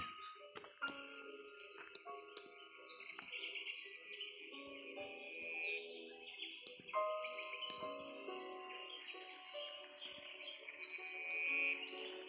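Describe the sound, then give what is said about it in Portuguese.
Cicadas buzz steadily and continuously, a dense, shrill drone layered with scattered chirps, holding at a moderate level for the whole stretch with no one speaking. “assim como o som no fundo das cigarras.”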